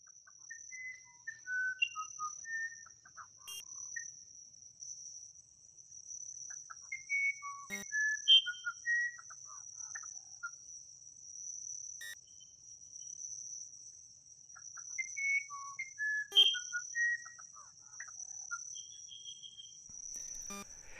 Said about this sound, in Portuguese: Esse é o canto do pássaro chamado uirapuru, que também é conhecido como guirapuru, virapuru ou arapuru. É muito famoso pelo seu canto melodioso, considerado um dos mais belos da floresta.